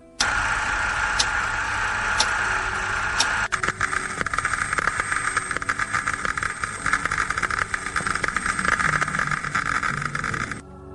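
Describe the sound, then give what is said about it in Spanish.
Radiation particles striking a camera's film negative make a steady, dense crackling hiss with a gritty, metallic buzz, sharp clicks and ticks scattered through it, running unbroken for about ten seconds before cutting off, with no voices present. “se escucha y se ve esas partículas de las que hablábamos de alguna forma impactando contra el negativo, contra la película y generando un sonido, un sonido que si lo pensamos bien puede ser terrorífico, ¿no?”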